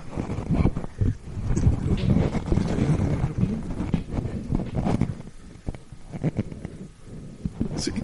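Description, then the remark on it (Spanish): Muffled handling noise as a Behringer 1800 microphone fitted with a foam windscreen is turned over: irregular low thumps, rubbing and rumbling bursts continue for several seconds with no talking. “Eh, es que la caja no dice, el micrófono no, no dice tampoco. Déjame, lo, lo, voy a voltear, pero no, no, no, no me dice.”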